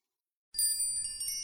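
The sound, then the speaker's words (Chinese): After half a second of silence, wind chimes break into a bright, shimmering tinkle, several high metallic tones ringing together and overlapping with no voices, the sound coming from a flower field. “风铃的声音正是从花地里传来的”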